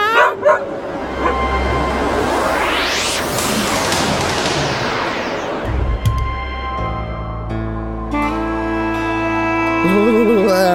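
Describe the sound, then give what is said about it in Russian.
A dog barks and yips a few times, mixed with a sweeping whoosh and sustained musical tones, with no one talking. “Беремся за поводок, закрываем глаза”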